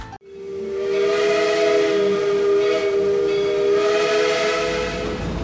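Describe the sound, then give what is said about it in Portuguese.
A steam locomotive whistle blows one long, loud, steady blast lasting several seconds, with a breathy hiss of steam underneath and no voices. The steam train is crossing the Uruguay River by rail, bound for Marcelino Ramos in Rio Grande do Sul. “a equipe atravessou o Rio Uruguai pelos trilhos de uma charmosa Maria Fumaça.”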